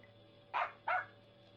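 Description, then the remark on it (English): A dog named Jeff barks twice in quick succession, two sharp woofs against a quiet background with a faint low hum. “Jeff, you fool dog, come back here!”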